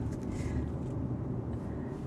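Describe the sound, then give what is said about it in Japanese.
Steady low rumble of a car cabin while the car is being driven, a continuous droning road and engine hum with faint airy hiss above, even in loudness throughout and no one speaking. “というわけで、今はまあ、ハンズフリーで車運転しつつ、”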